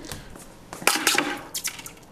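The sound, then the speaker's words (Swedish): Short bursts of sharp hissing and sizzling as melted metal is poured into water, coming in two quick flurries, with faint clinks and bubbling between them. “Nåja, nu har det smält det här. Nu ska jag hälla, hälla det, stöpa det.”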